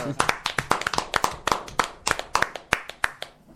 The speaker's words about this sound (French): On peut que l'applaudir. Ah bah ça, effectivement, moi je peux leur applaudir encore une fois.